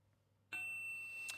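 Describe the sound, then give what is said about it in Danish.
A single bright electronic chime of an incoming text message (SMS) on a phone rings out suddenly, its clear tones ringing on and fading slowly with a faint extra ping near the end. “Går du virkelig ind for en dansk version af Brexit, kommer der en sms.”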